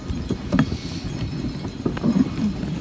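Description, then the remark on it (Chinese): Irregular soft hoof thuds of reindeer pulling a sleigh over snow between snow-covered trees at Santa Claus Village, a steady crunching plod with faint jingling over a continuous low rumble, with no talking. “那但是第一步在寄出之前，我已经先安排好了，所以我们要先去搭驯鹿哦。”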